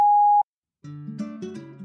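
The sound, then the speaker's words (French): A single steady electronic voicemail beep, a clean high pitched tone lasting under half a second, followed by a short silence before a fuller, sustained sound begins. “Merci de laisser un message après le bip sonore.”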